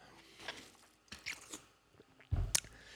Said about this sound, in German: Ich nehme einen Schluck Wasser zuerst.